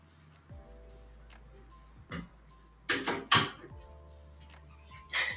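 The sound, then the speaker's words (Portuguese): A door is handled: a brief knock, then a cluster of sharp latch clicks and a rattling clunk, followed by one more thud, over a faint steady hum. “Gente, vocês acreditam que meu cachorro abriu a porta sozinho?”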